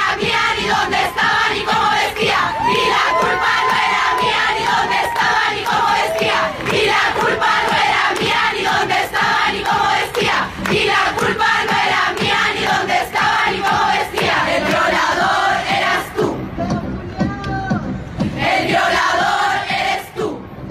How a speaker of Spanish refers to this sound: Bueno, ya pudimos escuchar un pequeño fragmento de lo que es la canción.